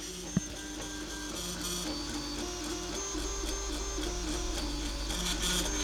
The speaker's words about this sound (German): Heute kriegt er mal kein Outro von mir, sondern mal ein paar andere Klänge. Wie sich das anhört, so ein 3D-Drucker.